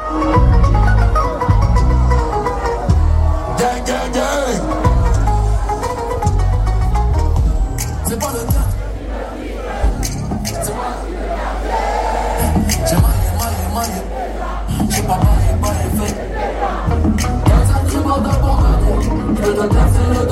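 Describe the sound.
A live rap performance: a rapper's voice rides a loud, bass-heavy beat with steady rhythmic hits, while a crowd roars and chants along underneath throughout.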